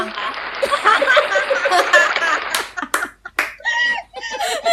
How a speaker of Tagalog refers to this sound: Ikikwento natin ba't may palakpak.